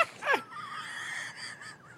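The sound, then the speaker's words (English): A bird gives a harsh, raspy call, like a crow cawing, starting with a sharp rough burst and trailing into a drawn-out, wheezy note. No one speaks. “Oh, I got a inch of bird over here.”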